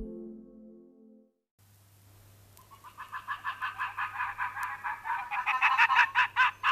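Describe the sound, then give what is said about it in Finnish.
An arctic fox mother, arriving with prey at the den mound on the treeless fell tundra, barks in a rapid, steady series of short, high yelping calls that grow louder as they go on, over a low, constant hum. “Puuttumalla tunturipaljakalla naaliemo saapuu saaliin kanssa pesäkummulle ja alkaa haukkumaan erikoisesti.”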